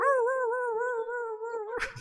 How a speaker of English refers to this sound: I want Cooper to start barking. Cooper, start barking.